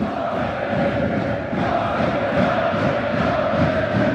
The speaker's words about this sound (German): Also ich hoffe, das kommt rüber. Wahnsinnsstimmung natürlich im äh, Block der Eisbären Berlin, die zum neunten Mal den DL-Titel holen.